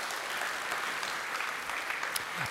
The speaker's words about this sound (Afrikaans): Kom ons gee net vir die orkes 'n lekker hande klap.